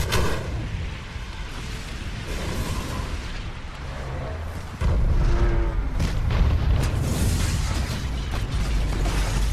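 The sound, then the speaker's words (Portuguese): Heavy cinematic movie explosions roar continuously with deep rumbling booms and crackling debris, growing louder and denser about halfway through, loud with no voices. “Para ver explosão do Michael Bay.”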